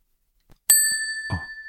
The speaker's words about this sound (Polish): O, jak cichutko, tak jakoś jeszcze raz może w takim razie. Mm, ten dzwoneczek taki cichutki się zrobił.